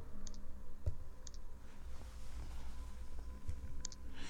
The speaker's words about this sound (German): Ich weiß nicht, ob man das gut hören kann, aber das ist ein ganz leises Klicken.